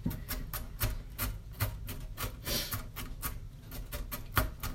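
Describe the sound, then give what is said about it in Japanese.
A knife finely mincing a little over half an onion on a board: a steady run of about a dozen crisp, quick taps with a faint rasp between strokes, and no talking. “玉ねぎのみじん切り”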